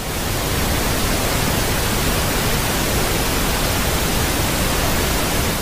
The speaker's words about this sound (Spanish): Tan solo piense en este sonido que la ciencia ha llamado el sonido rosa.